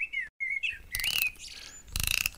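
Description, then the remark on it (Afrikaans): A golden wind-up mechanical bird decorated with diamonds and rubies is wound up and chirps a short whistling tune as its tail moves up and down, punctuated by two bursts of rapid ratcheting clicks from its winding mechanism, moderately loud with no talking. “Die gesant wend die meganiese voël op. Die voël se stert beweeg op en af en dit speel 'n lied”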